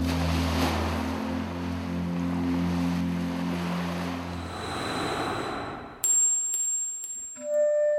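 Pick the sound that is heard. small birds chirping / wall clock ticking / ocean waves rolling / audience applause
ocean waves rolling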